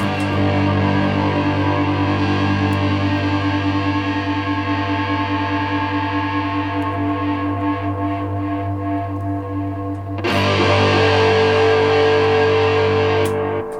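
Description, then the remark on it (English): Sustained, heavily distorted electric guitar through a fuzz pedal during a quick live sound check in a dining room, thick and buzzing with rich harmonics, ringing out loudly, then a fresh fuzzy chord struck near the end. “I'm gonna hit the fuzz.”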